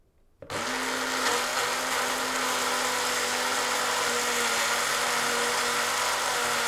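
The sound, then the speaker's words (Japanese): A blender switches on abruptly after a brief silence and runs at a steady, loud whir, a constant motor drone with a buzzing hum underneath as it mixes a sauce of olive oil, salt and pepper, with no voices. “今からこれをミキサーにかけますので何のソースだか当ててみたいと思う人は考えてください今ちなみにオリーブオイルと塩コショウを入れましたではちょっと音大きいかな回します”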